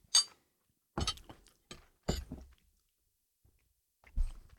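Chewing of a mouthful of broccoli and chicken, a few irregular crunchy, wet bursts separated by short pauses, with no talking.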